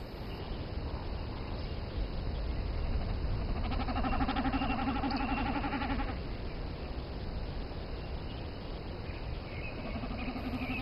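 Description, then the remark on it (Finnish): A male common snipe drumming in display flight in Kainuu, Finland: a rapid, vibrating, bleat-like hum that swells and fades, heard twice against steady outdoor background noise. “Ja vielä tänä kesänä, jos hyvin käy, on mahdollista seurata taivaan vuohen kuuluvaa soidinlentoa ja katsella koiraan näyttäviä syöksyjä.”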